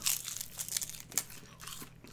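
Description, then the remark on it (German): Someone chews a crispy snack, a steady run of sharp, irregular crunches at a quiet level, with no talking. “Ja, also dann lass uns mal ordentlich knuspern.”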